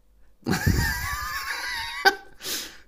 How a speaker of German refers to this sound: Gesundheit.